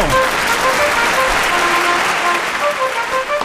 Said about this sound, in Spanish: No, aplauso, maestro. ¡Aplauso! Aplauso, maestro. ¡Bravo! ¡Bravo, maestro!